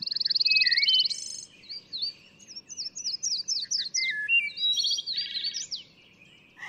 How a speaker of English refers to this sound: I was surrounded with bird song. The wood thrush, the hooded warbler, the yellow-throated warbler, and that high sewing machine song of the pine warbler. All of them were singing at once.